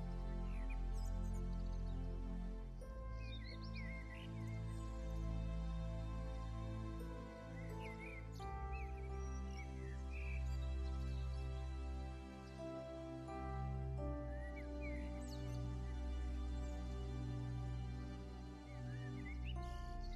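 Light bird chirps and twittering trills scatter throughout, blended over a full, sustained orchestral music bed that stays steady and prominent for the whole stretch.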